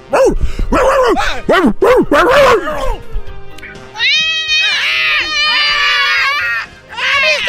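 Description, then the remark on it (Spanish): A rapid string of loud barks with yelping overtones fills the first few seconds, then gives way to a sustained high-pitched wailing cry, as a dog suddenly comes at a boy playing with a ball in the street and bites him. “El niño se estaba jugando cuando de repente vino el perro.”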